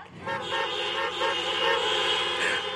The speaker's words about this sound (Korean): 여러분도 인정하신다면 제가 시작할 테니까 경적으로 빵빵빵빵빵 이렇게 다섯 번 울려주시면 감사하겠습니다. 시작!